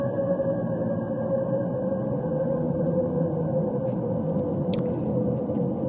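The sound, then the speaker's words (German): An eerie, continuous drone of steady tones, like a sonified Saturn radio-emission recording, hums without pause, with a few faint crackling bursts late on. No voices. “Während Saturn im Hintergrund äh, unser Liedchen singt, stoße ich mit dir an und trinke ein Stückchen.”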